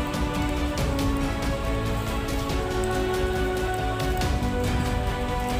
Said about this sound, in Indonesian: berada di dalam bersembunyi di dalam ruangan tapi tetap saja kau tak bisa sembunyi dari suara hujan meskipun kau bisa hindari basahnya Nyatanya, kau tetap tak bisa sembunyi dari basahnya suara hujan.